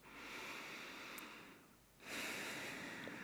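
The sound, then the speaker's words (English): Slow breathing in and out through the nose with the mouth closed during a guided meditation, one long soft inhale followed by a brief pause and a breathier exhale, quiet with no talking. “Just start breathing in and out through the nose.”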